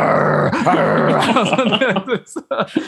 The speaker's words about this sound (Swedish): Det börjar så snällt att ja, det är någon jävla labrador eller vad fan det är. och sen tar det typ tre sekunder från att den hälsar och sen hör man i bakgrunden bara det blir liksom...